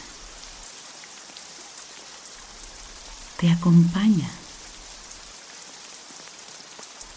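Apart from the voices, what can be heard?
rain falling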